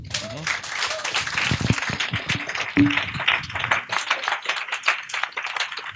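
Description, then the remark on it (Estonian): An audience breaks into applause after a social enterprise's presentation, many hands clapping in a dense, steady patter that stays loud for several seconds, with a voice faintly audible beneath it early on. “teeme suure aplausi.”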